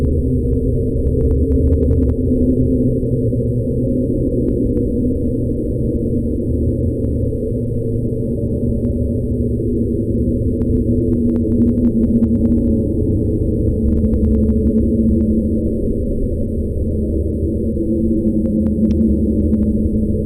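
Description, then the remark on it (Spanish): A dense, steady low rumble fills the whole stretch, a murky deep-sea-floor drone with faint scattered clicks and ticks drifting above it, played from a phone, no voices present. “Ya mira, lo que pasa es que en este, en este sonido, como se debería escuchar el fondo del mar, es como un poco de.”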